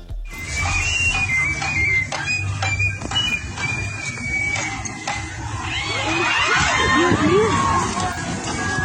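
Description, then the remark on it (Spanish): A crowd erupts in frightened screaming as a rope snaps during a descent from a pole at a church, many voices shrieking together in high, wavering cries that swell louder toward the end, with a sharp whistle-like tone threading through the dense noise. “Vamos a escuchar parte de este un pequeño fragmento de 15 segundos del momento en cuando se rompe la cuerda y pues la gente, por supuesto, grita aterrada.”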